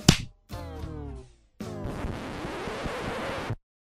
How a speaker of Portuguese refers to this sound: Ó, gente, rapidinho, rapidinho. Vamos só fazer as palmas aí. 3, 2, 1.